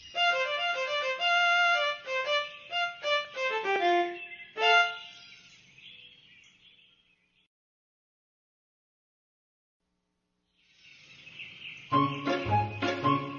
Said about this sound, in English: I'll play my fiddle, said Owl.